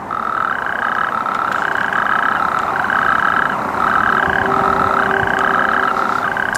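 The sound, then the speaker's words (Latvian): Natterjack toads, a rare and protected species in Latvia, call in a loud, continuous rattling trill, like winding an old clock, several churring voices overlapping with brief dips, with no one talking. “No krupjiem temīt smilšu krupis, rec un aizsargājams dzīvnieks, grumbainu ādu un pāri mugurkaulam tam iet dzeltenīga svītra.”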